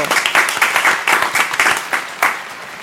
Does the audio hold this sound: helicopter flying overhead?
no